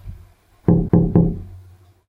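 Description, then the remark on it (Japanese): Three firm knocks on the wooden door of a room on the second floor, knocked from the outside just after it was shut, in quick, even succession, fairly loud, each with a hollow low thud and a short resonant decay, then quiet. “僕が今閉めたばかりの部屋のドア。それが外側からノックされた。”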